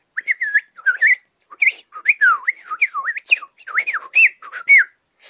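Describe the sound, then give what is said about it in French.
A person whistles a rapid, warbling birdsong imitation, with quick sliding trills and chirps in a continuous run of short phrases, fairly loud, with no talking. “On entend les oiseaux chanter comme jamais. Ils ont l'air de dire”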